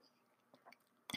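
A quiet sip of black coffee: a few soft wet mouth clicks, then one brief, louder slurp right at the end, with no talking.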